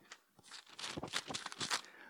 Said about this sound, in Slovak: tak, tak ešte kedysi dávno, keď sme nemali mobily, kde bola Biblia, tak, tak nikdy nezabudnem na to, keď sme hľadali v písme a to tak šušťalo v celom zhromaždení.